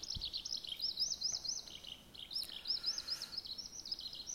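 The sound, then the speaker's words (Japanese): A Eurasian skylark sings a continuous, rapid stream of high warbling and trilling notes, steady over a quiet open-air background, with no voices. “というね、えー、ひばりでした。”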